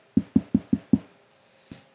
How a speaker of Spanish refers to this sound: En esas estaba cuando de repente tocan la puerta.